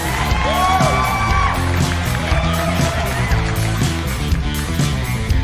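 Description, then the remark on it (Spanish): A loud, dense crowd roars, applauds and cheers without pause for the anniversary of the Racing Club de Avellaneda football club, with shouts and whoops rising over a thick wash of noise, like a packed stadium. “de mi equipo, muchachos, claro, por supuesto, fuerte el aplauso.”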